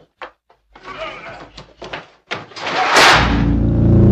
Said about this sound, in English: That period at the end of the sentence of him violently slamming the door just makes it all better.